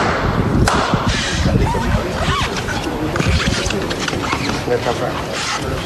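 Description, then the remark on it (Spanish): A single sharp metallic knock from the capataz's hammer striking the wooden procession float rings out early, at the parish of San Bernardo, over a constant roar of crowd noise and murmuring voices. “con su hijo, y suena el martillo.”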